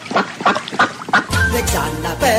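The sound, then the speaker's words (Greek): A duck quacks four times in quick, even succession, loud, then a dense musical backing swells in and carries on to the end. “Μια πάπια, πάπια, πάπια”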